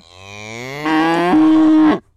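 A cow moos once, a loud, drawn-out bellow lasting about two seconds that rises in pitch partway through and then holds steady before cutting off.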